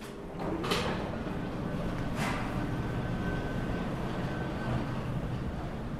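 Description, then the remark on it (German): An old elevator in the old Elbe Tunnel at the Landungsbrücken, in service since 1911, descends 23 metres carrying a car and two pedestrians, with a steady mechanical whir and rumble of cables, while wooden gates give two sharp rattling clatters early on, fairly loud, with no voices. “Die Seile surren, die Holztore klappern.”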